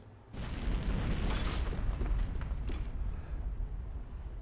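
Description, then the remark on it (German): A sudden, loud blast of a hand grenade thrown through a door inside a building erupts after a brief quiet moment, then a deep, heavy rumble rolls on for several seconds without fading much as the whole building shakes. No one speaks. “Und das ganze Gebäude fängt einmal an zu zittern, was alle natürlich durch die Lautstärke und auch durch das Gebäudezittern absolut wahrnehmen”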